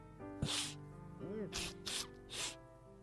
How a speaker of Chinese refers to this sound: …擤鼻子的声音就像是吹喇叭。